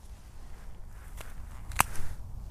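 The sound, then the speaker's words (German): A fresh russula mushroom, already inhabited by insects, snaps during a snap test with a short, crisp crack, preceded by a softer click, over quiet outdoor rustling and handling noise. “Das hat ein bisschen geknackt, obwohl er bewohnt ist.”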